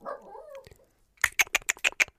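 A dog makes a brief whining sound, then lets out a quick run of about six short, sharp yaps in an even rhythm, moderately loud.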